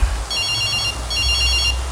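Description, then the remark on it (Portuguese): A telephone rings twice in bright, trilling bursts, each lasting about two-thirds of a second with a short pause between, over a steady low background rumble, as someone is hooking a fish while fishing. “Já desse telefone tocar na hora que eu tô fiscando o peixe.”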